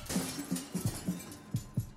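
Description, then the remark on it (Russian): The windows of an office shatter, followed by a rapid series of sharp clinks and crashes as shards scatter and tinkle over about two seconds, with no voices. “Раздался звон стекла. Окна кабинета Бориса Анатольевича вылетели к чертовой матери.”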